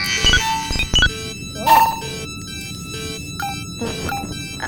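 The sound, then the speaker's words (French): A sci-fi capsule pod opens with sharp mechanical clunks, a rising hiss, and scattered electronic beeps and tones, all fairly loud with no voices. “J'ai ouvert le caisson.”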